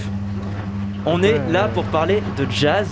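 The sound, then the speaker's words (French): A washing machine runs a load of laundry with a steady, low droning rumble that continues throughout, first alone and then beneath a person talking. “Ah d'accord, ah, c'est un bruit de lessive, d'accord.”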